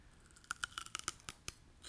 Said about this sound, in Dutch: Neem ik nog even een heerlijke... Ik zal ook even een bleekselderij hapje nemen. Ja, kun je dat horen?